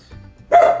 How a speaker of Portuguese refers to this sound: É o meu cachorro gritando